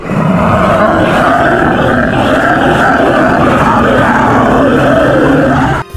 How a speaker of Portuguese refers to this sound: O bicho começa a gritar